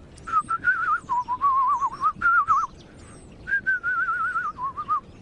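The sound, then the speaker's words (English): A person whistles in wavering, warbling phrases that mimic birdsong, two long trilling runs separated by a short pause, with no talking. “began trying to imitate the sounds he was hearing. Well, start basically by whistling.”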